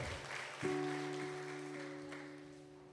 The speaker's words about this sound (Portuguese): Beija a sua Bíblia e dê uma salva de palmas ao Senhor Jesus, que é dono de toda a honra e toda a glória.